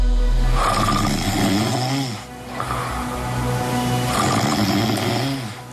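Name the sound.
person snoring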